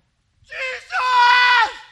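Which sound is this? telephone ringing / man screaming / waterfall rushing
man screaming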